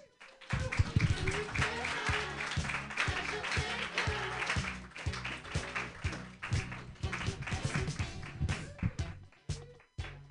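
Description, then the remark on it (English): A room full of people at a stand-up comedy show claps and cheers loudly for about ten seconds for a comedian from Portland who has just finished a set. The dense patter of hands holds steady before thinning out and breaking off near the end. “Clap more for Melina Best, everybody.”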